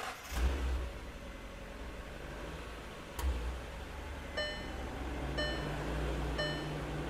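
A car engine starts with a couple of short bursts, then settles into a steady low rumble while a high electronic chime beeps roughly once a second near the end. No talking.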